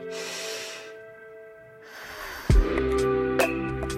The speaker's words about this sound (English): Um, so I'm going to close my eyes and sit up straight and take a deep breath.